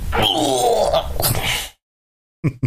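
human body sound, sneeze

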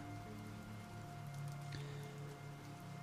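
nature, light rain falling

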